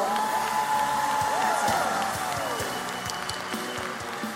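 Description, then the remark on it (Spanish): An audience in a church claps steadily for several seconds in a dense, continuous wash of applause, with a high sliding whistle-like tone early on and faint crowd voices mixed in before it gradually eases. “Así que recibámoslo con un buen aplauso.”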